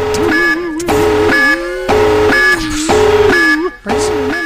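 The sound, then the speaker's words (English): A loud, harsh klaxon alarm blares in repeated blasts, about one per second, with brief gaps between them. A voice seems to talk faintly underneath. “Let us move on now to uh, here is the uh, klaxon alarm”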